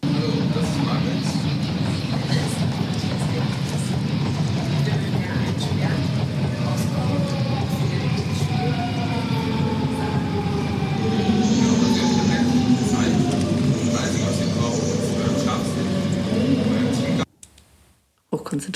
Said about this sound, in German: Findest du, ich fand, es klang ein bisschen wie am Bahnhof.